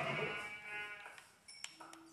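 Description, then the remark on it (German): A single video-game sheep lets out a loud, wavering bleat lasting about a second, followed by a few quieter electronic clicks and soft tones. “Da ist noch ein Schaf. Und da hinten sind noch zwei Schafe.”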